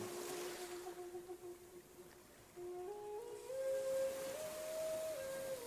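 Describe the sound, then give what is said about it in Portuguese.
Steam hisses steadily from sacred hot stones in a sweat lodge purification ceremony, a broad airy rush filling the whole clip, with a thin whistling tone on top that holds, then climbs in small steps. “vapor das pedras sagradas.”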